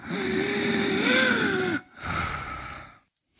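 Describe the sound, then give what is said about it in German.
A person imitates the whistling inspiratory stridor of pseudocroup: a drawn-out, wavering high-pitched wheeze lasting under two seconds, followed by a shorter, noisier rasping breath, fairly loud. “Ja, beim Pseudogrupp hat man eben so einen pfeifenden, inspiratorischen Stridor.”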